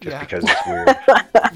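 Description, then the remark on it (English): A few sharp dog barks break in, fairly loud, roughly three quick bursts over people talking and laughing. “Um, well, that's that's my dog alarm that we have crossed the hundred minute mark, or at least are about to.”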